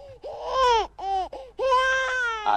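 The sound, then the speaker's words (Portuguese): An infant wails in loud bursts, three or four strained cries with short breaths between, the pitch rising and falling through each sob. “Agora é bebê.”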